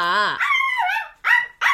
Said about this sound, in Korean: 아우, 시끄러. 저 강아지도 남 주든가 빨리 정리하고 결혼하면 깨끗하게 살아야지.